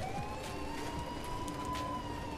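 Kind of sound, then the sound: vehicle, police and ambulance sirens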